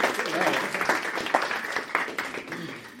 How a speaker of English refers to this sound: Round of applause.